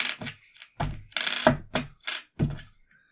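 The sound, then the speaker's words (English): A small four-sided die (d4), rolled for a Magic Missile attack, clatters and tumbles across a hard surface in a quick series of sharp knocks and rattles, uneven in rhythm, fading out at the end with no talking. “All right, roll the roll the d4 to attack.”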